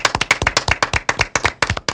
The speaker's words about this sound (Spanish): Un aplauso, por favor.